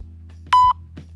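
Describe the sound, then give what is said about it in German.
A single short electronic beep tone, steady and clear at mid pitch, sounding briefly over a low background hum with no talking. “aber einfach, weil wir so ein Beep machen, dann halte ich an dein Telefon.”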